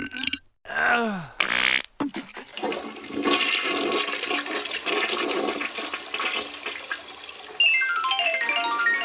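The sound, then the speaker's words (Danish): A short strained grunt gives way to a toilet flushing, a loud rushing gurgle of water that churns steadily for several seconds before turning into a brighter hissing refill. “Agent NN skyndte sig ud fra lokummet”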